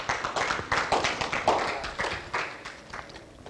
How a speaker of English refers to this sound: Right? Yeah, that's a good place to clap.